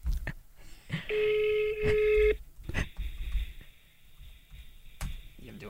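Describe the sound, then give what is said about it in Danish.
A phone's ringback tone from an outgoing test call placed on the programme Overskud sounds once as a steady, fairly loud beep lasting about a second, with faint background noise and muffled voices around it. “Prøv at teste Nu ringer den mm. igen.”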